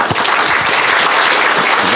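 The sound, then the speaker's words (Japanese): A crowd claps steadily for two seconds, a dense, even patter of many hands at a constant, fairly loud level with no voices standing out, applauding an audience member who had asked a question. “せっかくなんでですね今日これ質問してくださった方ここにいらっしゃってるはずなのでいるいるはずですが手を挙げお皆さん拍手で”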